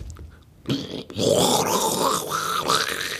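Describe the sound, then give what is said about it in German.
A voice imitates a toilet flushing with a loud, gurgling, rushing hiss and rough, growly tones that starts abruptly and keeps going for a few seconds. “Hört sich denn das auf jeden Fall eine kaputte Toilette, Digga.”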